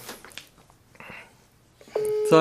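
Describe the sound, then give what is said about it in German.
After a second of quiet rustling and faint handling noise, a loud, steady electronic ringing tone from an outgoing video call starts and holds, growing a little louder at the very end. “Machen wir einen Videoanruf und dann erkläre ich ihm gleich, dass wir hier mitten im Podcast sind.”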